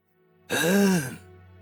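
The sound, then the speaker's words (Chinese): A single voiced throat clearing, a short hum-like "ahem" that rises and then falls in pitch, fairly loud and lasting under a second over a faint low hum. “金翼清了清嗓子，然后继续认真的说道”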